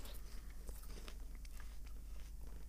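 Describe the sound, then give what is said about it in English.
Munching and crunching on food, with irregular crisp bites and chewing repeating steadily over a low background hum, no talking. “Also, you want to take a guess what I'm munching down on now?”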